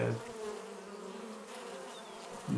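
A swarm of bees from a beehouse beside a canal on the Ljubljana Marshes buzzes in a dense, steady drone that fills the whole moment. The bees swarm onto a man. The sound is fairly loud, with no voices present.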